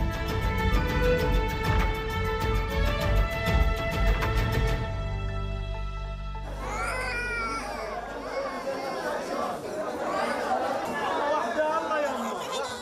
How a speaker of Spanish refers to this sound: Lo que están escuchando es un hospital en Gaza, heridos, gente desesperada y sin electricidad, ni funcionan los quirófanos ni las incubadoras.